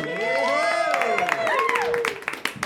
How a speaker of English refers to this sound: I know where the applause goes.